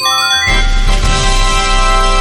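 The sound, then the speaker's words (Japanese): A bright electronic ping-pong chime rings out over a steady musical backing, its tones sustained and layered for a couple of seconds, fairly loud, with no one talking. “ピンポンも一緒になっちゃうけど”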